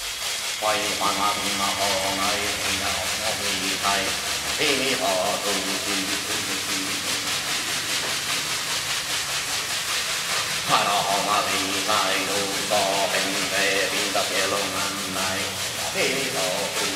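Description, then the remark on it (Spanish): A bundle of plant leaves called a guaira is shaken steadily over the yajé drink during a yajé ceremony, making a dense, continuous dry rustling that swells and pulses throughout, while a low voice chants or sings underneath. “empezó a agitar un racimo de hojas de plantas, que se llama guaira, sobre el yajé.”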